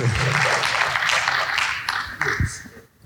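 A crowd claps together in a dense, steady burst of applause that fades out near the end, with a few voices mixed in underneath.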